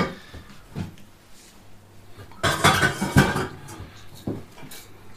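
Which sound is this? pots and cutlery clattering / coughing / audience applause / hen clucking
pots and cutlery clattering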